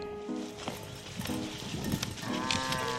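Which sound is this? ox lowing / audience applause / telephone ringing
ox lowing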